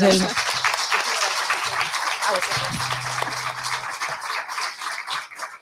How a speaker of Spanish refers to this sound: Pues sí, muchísimas gracias. Enhorabuena. Gracias. Un aplauso para